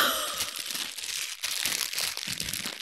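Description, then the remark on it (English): Continuous crinkling of a plastic bag of weed being handled, with crisp rustles and crackles that swell and fade over a few seconds. No voices. “Fucking bag of weed.”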